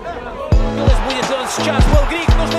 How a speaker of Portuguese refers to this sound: E eu tô saindo aqui na porta do Luzniki. Essa cantoria toda que vocês estão ouvindo é dos torcedores croatas.